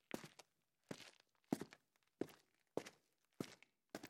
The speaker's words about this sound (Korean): 발소리는 가까워졌다가 다시금 멀어져 갔다.